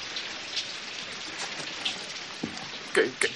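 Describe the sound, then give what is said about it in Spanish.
Steady rain pours down in a continuous hiss, with a few louder drops and splashes striking a surface near the end. No voices are heard. “Y con esta lluvia no hay manera de que alguien me lleve.”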